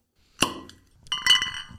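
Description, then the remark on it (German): A bottle is uncorked with a sharp hit that rings briefly, then after a short pause bright glass clinks and chimes ring on for about half a second, with no talking. “Ich habe leer. Aufkorken. Aufkorken.”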